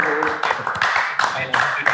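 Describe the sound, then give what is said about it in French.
A group of people clap in a loose, uneven burst, sharp hand claps scattered over a steady crowd murmur, with voices talking and cheering underneath. “on applaudit s'il vous plaît, les gars.”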